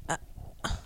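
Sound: chair creaking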